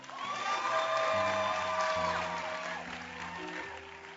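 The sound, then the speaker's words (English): A crowd claps and cheers loudly for a dancer, with whoops and shouts rising over steady applause that fades slightly toward the end, while music plays underneath. “So can we clap for her?”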